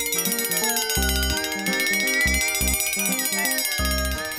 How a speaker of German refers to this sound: Da klingelt es an der Haustür.